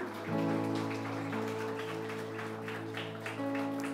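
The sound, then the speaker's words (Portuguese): A church audience stands and claps loudly and steadily for Jesus, a dense crackling wash of applause that holds for several seconds over sustained keyboard chords. “Fique de pé e aplauda Jesus bem forte.”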